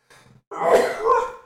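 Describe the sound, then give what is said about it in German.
A short sharp intake of breath, then one loud sneeze that bursts out and trails off over about a second. No one talks. “habe ich nie gesehen. Gesundheit.”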